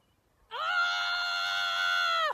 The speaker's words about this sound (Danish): Det er mig. Mm. Det er mig, der øh, skriger min smerte ud.